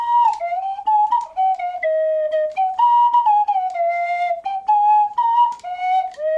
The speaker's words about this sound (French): C'est plus un sifflet qu'une flûte en fait, tellement c'est difficile de jouer de la vraie musique avec. Eh ben, le type dont je te parle a conçu le premier autotune pour siffler à coulisses.